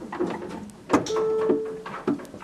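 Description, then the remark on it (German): A single steady electronic beep, mid-pitched and lasting under a second, signals a goat's correct choice after it presses the penguin symbol on a monitor with its snout in an experiment in a goat stall in Dummersdorf, amid a few dull thumps and clunks like buttons or a panel being pressed. “Ein Tonsignal verkündet, die Wahl war richtig.”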